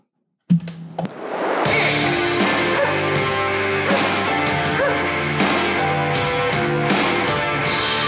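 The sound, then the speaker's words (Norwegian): A short instrumental jingle bursts in after a brief silence, with loud, full, sustained tones and a steady rhythmic pulse that carries on for several seconds without any talking. “Mens dere finner fram uh, eh, pledd og noe godt i glasset, så kjører vi en jingle.”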